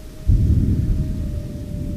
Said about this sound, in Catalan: Fa tantes hores que dura el diluvi, fa tantes hores de llamps i trons, que els monjos de Sant Benet es preparen per combatre el conjur de les bruixes amb aigua beneïda i sant la vera creu.